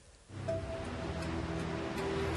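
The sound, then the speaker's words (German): Sea waves roar steadily against the coast near Norfolk, England, a continuous wash of surf that swells in after a quiet moment and keeps going, with a faint low hum underneath and no voices. “An der Küste bei Norfolk holt sich das Meer jedes Mal ein paar Häuser, jedes Jahr, wie hier.”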